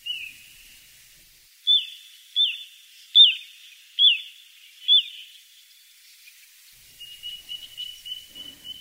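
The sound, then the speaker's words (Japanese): Little ringed plover calls: five sharp, high, down-slurred whistles at a steady, unhurried pace, close and clear in a quiet setting, framed by fainter thin piping at the start and end. “コチドリの食べ物は干潟に住むカニやゴカイなどです。”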